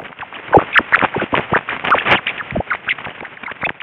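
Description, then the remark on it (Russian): Pitch-lowered ultrasonic giggling of a tame domestic pet rat being tickled: a rapid, irregular stream of short chirps and squeaks, some sharper and louder than others, with no voices. “И это была ручная домашняя крыса.”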